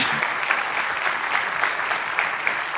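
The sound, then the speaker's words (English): Steady audience applause as graduates come up to the stage, a dense wash of many hands clapping at an even, moderately loud level without pauses or any voices rising above it. “Give them a round of applause as they do.”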